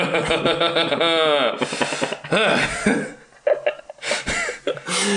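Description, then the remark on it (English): A person makes strained, sputtering vocal noises of frustration, like a curse cut off before it comes out, with rising and falling pitch and brief breathy bursts, fairly loud; a noise summing up their obsession with a game. “is the noise of almost swearing.”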